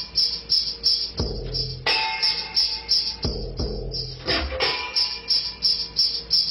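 Programmed music plays back from a Fairlight sampler, with a thin, band-limited tone, a steady ticking pulse, and sustained synthetic chords punctuated by a few heavy struck hits. No one speaks.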